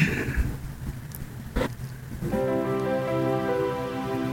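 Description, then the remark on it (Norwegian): A short segment jingle: a rushing, rain-like noise wash with a sharp hit, then bright sustained synth chords ring out steadily at a moderate, even volume, with no voices. “Jeg er alltid klar, men du skal vel ha jingel først? Jeg skal ha jingel da.”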